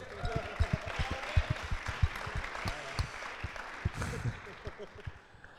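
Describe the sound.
A group claps in a steady, irregular patter for several seconds, applause given in thanks to a man who brought the speakers' children, the sharp claps blending into a continuous wash of applause with faint murmuring voices underneath.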